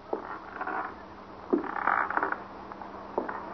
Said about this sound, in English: You hear that? Yeah. It's coming from up there in that attic, ain't it? It ain't coming from me. I'm not so young anymore, but when I start creaking like that, I'll know. I was right. There is somebody in that attic.